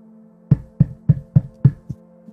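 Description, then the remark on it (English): A quick series of five evenly spaced solid knocks on a door, followed by a fainter sixth tap, all over a low steady background hum. “But as you stand up, you hear a door the, on the door, a knock come.”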